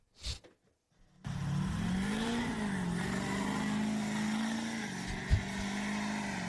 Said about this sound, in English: this guy stops by, wants to do a burnout. I'm like, yeah, you you can do a burnout. He's got brand new tires.